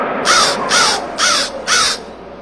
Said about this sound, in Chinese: 这么大的天地，竟会找不到一处好的地方，怪呀，怪呀！ 乌鸦大声叫道。